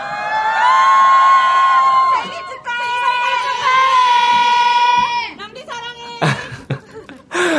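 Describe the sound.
A studio crowd at an open-studio radio broadcast, gathered on a cold day to celebrate the DJ's birthday, cheers and shrieks loudly in high-pitched, sustained voices for about five seconds, then the noise dips before a few sharper bursts of cheering and shouting near the end.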